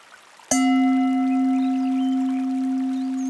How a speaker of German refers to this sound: Und da war wieder der Gong und du kannst wieder überprüfen, wo du gerade warst, wo du bist.